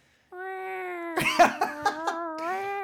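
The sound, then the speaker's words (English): A siren wails with a steady, reedy tone that bends slightly in pitch, oddly like cats meowing, while short bursts of rough noise break over it midway. No one speaks. “She said it sounded like cats at, at a distance.”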